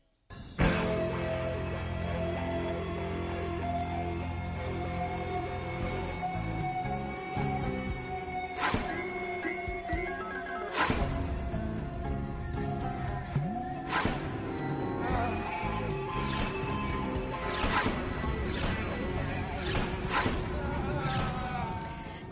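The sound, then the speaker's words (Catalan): Crisp scissor snips from a scene in the film The Big Lebowski cut through a steady musical backdrop, arriving as sharp, isolated clicks at irregular intervals, roughly every couple of seconds, clear above the music. “És el so d'unes tisores.”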